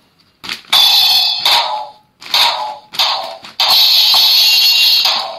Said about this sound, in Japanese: こんな感じで音が出てドラムをこう叩いてるような感じで遊べるっていう音の出るおもちゃです息子は音が出るおもちゃが大好きなのでこれも買ってみました